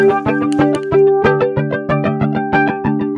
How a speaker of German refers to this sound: wir müssen jetzt mal so eine, so eine äh, Jet Flanger … Einstellung finden